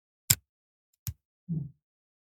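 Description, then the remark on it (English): The twist mechanism of a Leuchtturm 1997 Drehgriffel Nr. 1 pen turned slowly open and shut: two crisp clicks a moment apart, then a brief low grinding rasp, quiet and with no voices. “Slowly opening and closing.”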